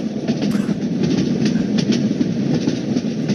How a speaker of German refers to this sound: Saß er im ICE.